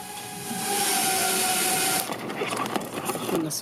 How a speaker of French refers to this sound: Un léger bruissement se fait entendre. Le drone est en approche, déroule son cordon et dépose le colis dans le jardin